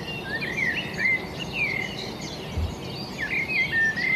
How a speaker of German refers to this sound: Das Morgenkonzert ist am lautesten zwischen Dämmerung und Sonnenaufgang. Und in der Zeit muss man raus.